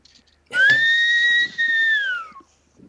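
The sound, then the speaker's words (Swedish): A person whistles one long, steady note on a second attempt, loud, holding the pitch for about two seconds before it dips and fades at the end. No one speaks. “Jag fick inte till visslingen, jag gör en till.”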